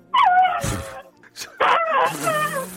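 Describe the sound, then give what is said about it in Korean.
A person imitates a Thai elephant with their voice: two fairly loud, wavering high-pitched trumpeting calls separated by a brief pause, with no other sounds around them. “아, 그 태국에 가면 코끼리 많이 볼 수 있잖아요.”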